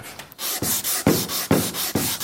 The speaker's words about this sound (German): Das legen wir jetzt um den Schleifklotz außen rum und dann kannst du damit einfach mal über die Fläche drüber. Geht's schneller, wenn man drückt? Also je fester man drückt, desto mehr schleift man ab, ja.